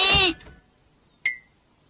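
A lamb inside a closet gives one short, loud, quavering high-pitched bleat. After a brief quiet pause comes a single bright, quickly fading tone.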